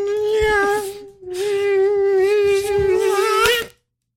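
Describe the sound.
A person imitates a mosquito with a thin, steady, high-pitched buzzing hum, held in two long bursts with a brief break between, fairly loud, without any talking.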